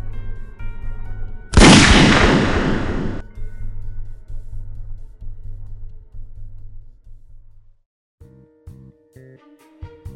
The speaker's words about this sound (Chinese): 电光火石间，我根本来不及躲开，卡尔顿就扣动了扳机。我希望那是哑弹，但枪声却如此清晰。